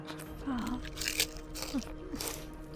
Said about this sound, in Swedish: Och hon stoppar in hälften av fingret och sen hör du det crunchade ljudet när hon börjar tugga på ditt finger.